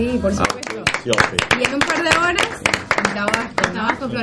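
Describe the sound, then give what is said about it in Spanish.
Applause from a small group sending off a guest who makes electronic music, sharp irregular claps running steadily for several seconds, with voices calling out and talking loudly over the clapping. “Así que felicitaciones por lo que estás haciendo y que tengas mucho éxito y lo despedimos con un aplauso.”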